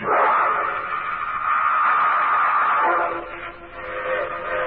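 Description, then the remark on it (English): A midnight freight train heading east gives a steady, loud rumble and carries a long, sustained whistle with a bright, layered tone that holds for several seconds before easing slightly near the end. No one speaks. “I hopped a midnight freight heading east.”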